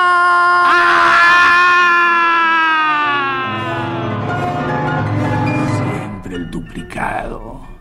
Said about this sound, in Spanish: ¿Quién dio el grito desgarrador?